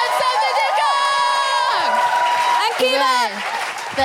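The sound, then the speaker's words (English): A comedy show crowd cheers loudly and steadily for the comics at the end of the show, with high whoops and shouted voices rising and falling over a wash of clapping that continues throughout. “Um, give it up one more time for Ola Labib, Charlie George”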